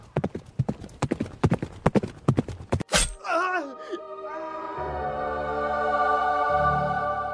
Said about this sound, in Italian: Rumori, grida, esplosioni si affollano nelle sue orecchie, tanto da non sentire gli zoccoli di un cavallo che gli arriva alle spalle.